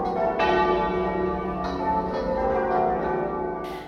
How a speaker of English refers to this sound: Earlier today, bells tolled at cathedrals and churches across the country,